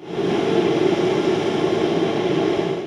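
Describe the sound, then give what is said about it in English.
A steady, loud mechanical roar with a broad hissing wash as an intelligent pesticide sprayer operates for the nursery industry, blasting a mist of pesticide in just the right amount and location, holding constant throughout with no pauses or voices. “It's called an intelligent sprayer, and here's the sound of it in action.”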